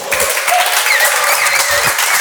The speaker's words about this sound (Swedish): Eh, jag tycker vi ska starta det här med en stor applåd faktiskt.